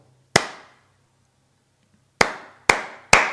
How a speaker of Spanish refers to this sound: entre aplauso y aplauso hay un silencio. Ya no solamente le des atención al, al sonido como tal, dale atención al no sonido, al silencio.